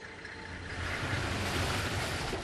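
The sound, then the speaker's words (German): A car stuck in mud, its engine droning steadily while spinning wheels churn, making a continuous loud rumble with a rushing, splashy wash and no voices. “Der Wagen steckt im Morast.”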